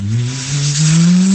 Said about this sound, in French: Mais est-ce que tu peux téléphoner avec alors, à mon avis, tu peux téléphoner et, et la sonnerie, c'est un bruit de voiture qui accélère.